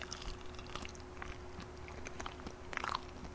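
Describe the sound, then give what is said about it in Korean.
Close-miked chewing of springy boiled egg white, a steady run of soft, squishy mouth sounds with a few brighter moist clicks near the end, quiet and with no talking. “완전 쫄깃쫄깃한 소리 들죠? 탱탱한 소리.”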